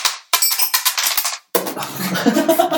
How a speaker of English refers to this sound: Uh, let's roll the dice.